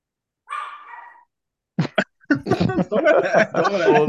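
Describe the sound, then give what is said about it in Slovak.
A person imitates a dog with a drawn-out whine followed by two short, sharp barks, then laughter and lively chatter from several people. “tak už povedal si, že budeš iba štekať.”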